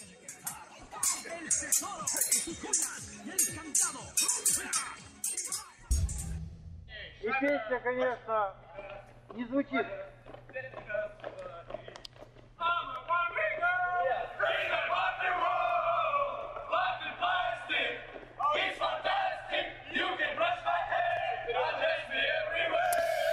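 A group of Russian army soldiers sing a pop song together in loud, rowdy unison, opening with a burst of shouting, then carrying on with sustained chanted lines over a steady low hum.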